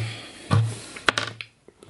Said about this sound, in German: Dann würfel ich